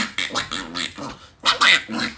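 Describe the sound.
A person imitates a duck, letting out a string of loud, nasal quacking calls in quick bursts, with no other talking.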